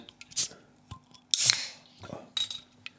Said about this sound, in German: Oh, bei dir zieht das aber. Ist das etwa eine Dose? Ah, lass mich, warte, am Klang würde ich sagen, das ist eine Coca-Cola-Dose. Mm -mm. Nee. Sondern? Paulana, also Paulaner Spezi.